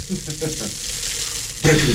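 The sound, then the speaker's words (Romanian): Sparkling wine fizzes in a glass with a steady, crackling high hiss of tiny bursting bubbles, growing louder near the end as a faint murmur of voices sits beneath. “E spumant dacică asta, să știi”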